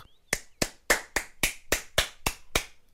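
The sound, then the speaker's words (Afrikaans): Loud hand claps, about nine in a quick, steady rhythm, sharp, with no talking in between, as a boy who has opened the gate claps his hands hard to chase goats out of a vegetable garden. “Hy maak die hek oop en klap sy hande hard om die bokke uit die groentetuin uit te probeer jag.”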